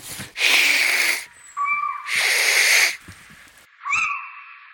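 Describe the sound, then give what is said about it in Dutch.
A little owl parent gives long, harsh hissing calls to its young, broken by short, rising whistled notes, alternating twice, clear with no talking. “Dan zijn er speciale geluidjes die eh, ouders maken eh, naar een jongen toe, met name de moeder.”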